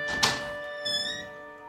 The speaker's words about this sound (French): Mais Kafi est libre pour la première fois de sa vie, et comme il aime l'aventure, il pousse la porte.